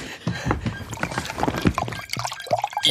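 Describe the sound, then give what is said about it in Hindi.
Water pours into a glass in a kitchen, a steady splashing trickle with a gurgling tone that rises as the glass fills, followed by a couple of short glugs near the end. “आप आप रुकिए मैं मैं आपके लिए पानी लेकर आता हूँ एक मिनट वो वो वो, वो, वो वहाँ है किचन किचन”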